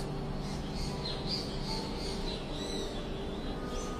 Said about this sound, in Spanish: Vamos a inhalar nuevamente y a incluir cualquier sonido de nuestro alrededor, lo que sea que haya. Aquí tengo pajaritos,